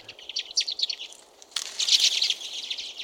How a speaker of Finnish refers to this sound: Lähestyvän urpiaisparven voimistuva helinä